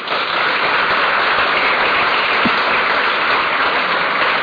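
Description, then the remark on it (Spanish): A church audience claps loudly and steadily in applause for the Lord, a dense wash of applause that holds at full strength for the whole stretch with no voices over it. “¿Qué tal si damos un aplauso bien fuerte al Señor?”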